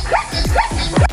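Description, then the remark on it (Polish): A zebra call: a rapid run of three or four sharp, yelping barks with high, squeaky edges, loud, in quick succession without any talking. “Naprawdę tak robi zebra?”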